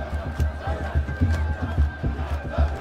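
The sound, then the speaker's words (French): A large crowd, a whole town gathered in one place, roars in a dense, continuous wash of many voices, with scattered shouts and bursts of cheering rising above the steady din. “Je vous parle d'un préau et sous son toit, à la place des nids d'oiseaux, il y a des mains agrippées aux tuiles et des escalades pour voir d'en haut à quoi ressemble la foule, comment s'amasse en un seul lieu toute une ville.”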